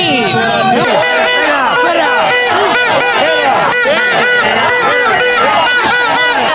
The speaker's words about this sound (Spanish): con, todo lo que nos estás contando, estos abucheos e insultos casi que podrían ir dirigidos también, también para ti.